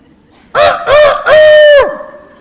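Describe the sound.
A rooster crows a single loud cock-a-doodle-doo in three rising syllables, the last drawn out and trailing off, with no other sounds around it.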